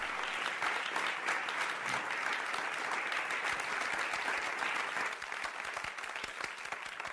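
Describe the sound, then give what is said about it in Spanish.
Students give their teacher a standing ovation at the end of his last class, sustained, dense applause, many hands clapping steadily at an even loudness for several seconds before easing slightly toward the end. No one speaks. “Los estudiantes lo aplauden de pie.”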